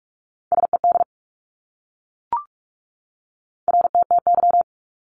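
Fast Morse code at around 45 words per minute sending abbreviations: two short bursts of a steady, clear beeping tone, rapidly keyed on and off, separated by a brief click and silence. No voices.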